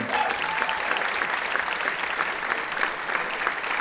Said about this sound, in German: Ein Applaus für Nils und seine zwei Minuten.